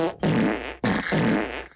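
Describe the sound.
Two loud, buzzy fart noises made by pressing hard on a forearm, each a sustained flapping rasp lasting about half a second, separated by a short pause, with no talking.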